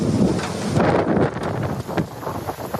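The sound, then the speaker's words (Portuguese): Very strong wind in Serbia blowing hard against the microphone, a loud, continuous low roar with gusty rumbling bursts and a broad hiss throughout, with no voices. “Na Sérvia, chuvas torrenciais e ventos muito intensos trazem para a estrada telhados de vários edifícios e provocam inundações.”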